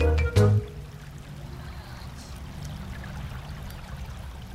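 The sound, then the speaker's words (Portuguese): Heavy rain pours down outside in a steady, dense wash of hiss that fills the whole clip, opening with a brief low thump before settling into an even, continuous downpour. “Acho que a chuva tá. tá pegando feio lá fora.”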